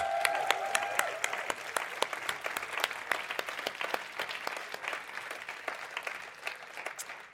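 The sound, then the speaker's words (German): A church audience at the Freiburg campus applauds and cheers as it is greeted, with dense, continuous clapping. A brief high whoop or whistle rises near the start before the clapping carries on alone. “Lass Freiburg von euch hören. Wir begrüßen Freiburg.”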